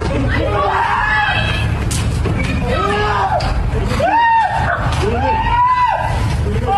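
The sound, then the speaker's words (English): Several loud, strained shouts from a filming neighbor ring out over a noisy outdoor hubbub of voices and street traffic in Bridgeport as men try to shove a man into a van, coming in repeated bursts across the scene. “Because if it was those Sinaloas, whew, lucky that neighbor started filming and yelled”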